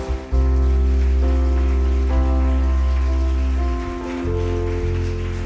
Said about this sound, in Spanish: Podemos dar un aplauso fuerte a nuestro Dios. Gracias, Señor.